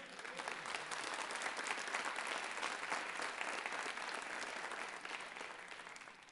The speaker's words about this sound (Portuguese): Amém? Aplauda ao Senhor.